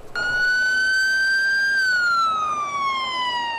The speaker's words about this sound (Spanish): Con algarabía policial, en una caravana de autos, el pequeño Christopher regresó a casa